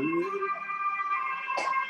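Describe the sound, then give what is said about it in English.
An ambulance siren wails as it passes a house near Skanstull, a steady high-pitched tone from the emergency vehicle, heard on its own with no voices over it. “I can I can tell what's happening in the pandemic because of the number of ambulances that go past my house.”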